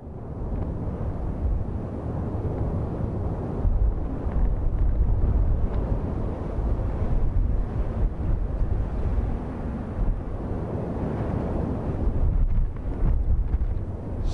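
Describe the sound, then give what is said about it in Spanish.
Lava from the Cumbre Vieja eruption pouring into the sea on the coast of Tazacorte, La Palma, a steady, dense roar of hissing and deep rumbling that surges slightly in waves, heavy and continuous with no voices. “La erupción no respeta ni el día de San Miguel y a esta hora suena así ese encuentro con el mar.”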